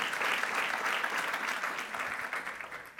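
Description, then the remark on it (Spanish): A large audience applauds steadily for the King of Kings during a bilingual Spanish-English church service, a dense wash of many hands clapping together, holding strong before easing slightly toward the end. “dele ese aplauso al Give a de strong applause for the King of Kings.”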